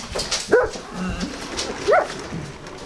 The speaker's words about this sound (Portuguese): Senta lá. Mais junto. Deita. É. Cão grande. Anda.